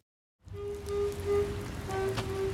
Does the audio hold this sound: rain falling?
yes